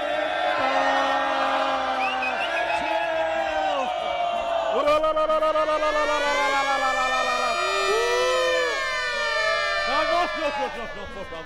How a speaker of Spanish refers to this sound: No, la, sirena esa de veras me, me escama, hombre.